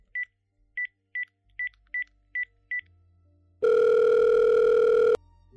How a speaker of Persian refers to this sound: تلفن خونه موریو برداشتم و زنگ زدم خونه